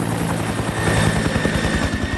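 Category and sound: sound effect, helicopter sound effect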